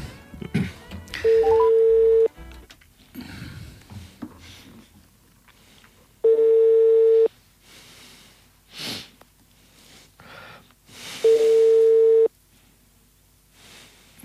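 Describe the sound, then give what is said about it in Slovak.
A telephone ringback tone while calling someone sounds three times, each a steady mid-pitched beep lasting about a second, separated by pauses filled with faint sniffing and rustling. “Dvihne, dvihne, neboj sa.”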